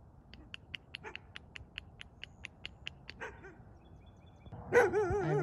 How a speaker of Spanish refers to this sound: Ya, los asustas, Cállate, perro del vecino, ¿dónde estás?